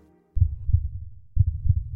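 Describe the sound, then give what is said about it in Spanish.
A muffled heartbeat thumps twice in a deep lub-dub rhythm, each pair of low thuds about a second apart, with nothing else audible. “Escuchas tus latidos.”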